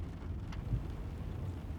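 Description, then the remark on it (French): Light rain begins to fall as someone gets into a taxi, a soft, steady hiss with a low rumble underneath and a faint tap or two, heard at moderate volume with no one speaking. “en tout cas, vous êtes entré à temps dans le taxi, il se met à pleuvoir.”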